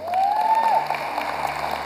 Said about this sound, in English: Can you give the Lord a great big hand clap?